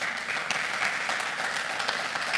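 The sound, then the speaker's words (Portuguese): A crowd applauds steadily, a dense wash of many hands clapping at once, sustained and even throughout with no voices standing out. “Você pode dar um aplauso a ele por isso?”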